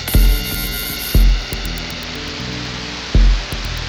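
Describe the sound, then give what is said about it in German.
A dense, steady wash of synthesized noise built from a hi-hat, hissing and shimmering throughout, with three deep low thumps and faint rhythmic high ticks layered in. “Larsynthesen wird aus dieser Hi-Hat dieses schöne Rauschen.”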